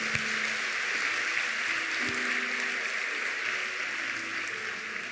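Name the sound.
applause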